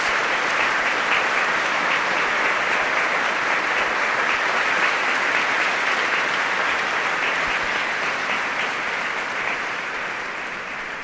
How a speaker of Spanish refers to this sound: jo aquest dia me, me feis vergonyir amb aquests aplausos a pel carrer i per aplausos.